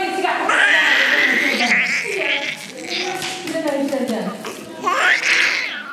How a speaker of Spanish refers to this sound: También las voces en Hassanía, el habla saharaui, y el primer llanto de una niña que nacía para vivir en un campamento de personas refugiadas en Argelia.